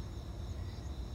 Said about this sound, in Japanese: 今日は久しぶりに外で撮っています少し外の音聞こえるかしら虫が鳴いてんのよね